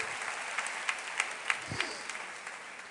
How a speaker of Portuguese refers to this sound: Você pode aplaudir ao Senhor.